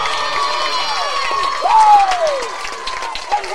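A crowd at a youth baseball game cheers on the 12-year-olds, clapping steadily, with shrill whistles and high shouts cutting through; the noise swells briefly in the middle before settling back to a lively roar.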